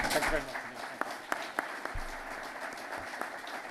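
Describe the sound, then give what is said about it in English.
An audience applauds a visiting guest, a dense wash of many hands clapping with a few sharper, louder claps standing out, holding steady for several seconds before easing slightly. “Can we have a round of applause for.”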